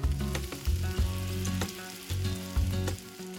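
A Whopper burger sizzling on a grill, shown on a Burger King bus-stop advertising screen: a steady, dense crackling hiss that runs without pause, with a low humming layer beneath that swells in a few pulses. No one speaks.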